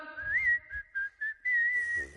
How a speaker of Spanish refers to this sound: Cualquier quehacer es un placer, se hace sin pensar, silbando al trabajar.